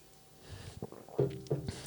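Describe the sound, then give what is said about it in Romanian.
Soft sipping of tea: a few quiet slurps and a swallow in quick succession, with a faint clink at the very end, no talking. “Dar uite că timpul zboară tare, mai sorb o gură de ceai și încheiem.”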